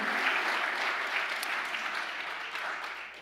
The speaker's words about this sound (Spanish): Vamos iglesia, denle el aplauso fuerte a Dios.